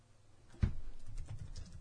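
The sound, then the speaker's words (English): Quick, soft clacking of fingers typing a Google search on a computer keyboard, a brief run of key presses with no one talking. “All right, I have to do one more Google search.”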